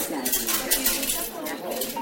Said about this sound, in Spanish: A mi lado, por ejemplo, había una, una familia, oyes la, el vuelto, el cambio con monedas.